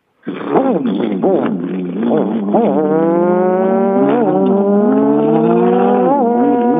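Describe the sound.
Two contestants loudly imitate, at the same time, a motorcycle whose muffler has a hole, a continuous buzzing drone that sputters early on, then revs with rising and falling pitch for several seconds.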